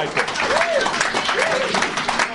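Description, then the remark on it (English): An audience claps steadily for a young man held up as an example, a dense, even wash of many hands that holds at a constant level throughout, with a voice briefly rising and falling over the applause. “And I think he, he, he deserves a bit of a round of applause for his example as a”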